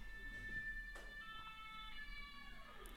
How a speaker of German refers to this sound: Was ist das? Mm, Rettungswagen. Ach so. Hier ist gerade auch Tohu Wabohu im Hintergrund.